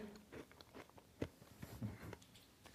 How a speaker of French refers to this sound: J'ai ma cuillère. Est-ce qu'on va t'entendre mâcher